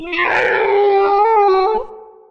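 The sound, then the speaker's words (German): An owlbear, a monstrous creature with a feathered body, a mighty beak and big black eyes, screams at a camp from about 50 feet away: one loud, drawn-out howling cry lasting about two seconds, harsh and raspy at the start, wavering slightly in pitch before breaking off. “Der blickt auf euer Lager mit seinen großen schwarzen Augen und schreit.”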